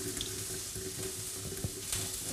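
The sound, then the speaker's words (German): Rinse water is carefully poured off rice, trickling steadily out of the bowl into a sink while the rice stays in the bowl; a continuous splashing stream with a few soft clinks and no one speaking. “Und jetzt gehen wir wieder zum Reis und schütten mal das Wasser wieder weg.”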